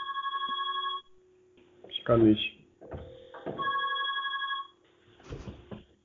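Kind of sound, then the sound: signal or alarm, telephone ringing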